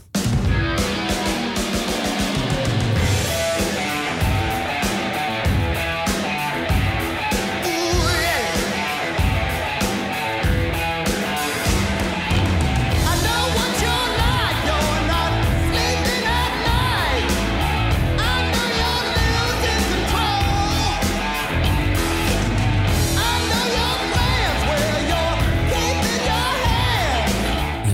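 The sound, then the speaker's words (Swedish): A loud, dense rock song plays throughout, driven by heavy pounding drums with a short slapback echo on every hit, on snare, toms and bass drum alike, and energetic vocals over the full band. “ett litet sånt delay som … hade på sången”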